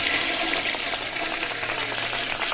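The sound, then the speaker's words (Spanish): Steady rushing of running water, like a tap pouring, loud and continuous with a hissy, splashing texture throughout, no voices over it. “Te vamos a mandar agua, el agua que desperdicia de Barreda. Ahí te va.”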